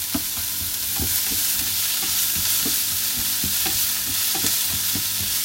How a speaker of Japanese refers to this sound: それでは、えー、ちょっと玉ねぎを焦げないように炒めていきたいと思いますああ、こういう音がするのいいよね多分